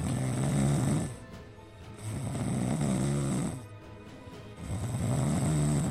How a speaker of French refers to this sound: Lors du voyage retour vers Rennes, plusieurs joueurs s'endorment dans l'avion. Le kiné, habitué à jouer aux cartes lors des déplacements, ronfle carrément dans la carlingue.